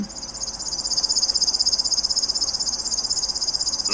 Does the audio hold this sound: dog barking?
no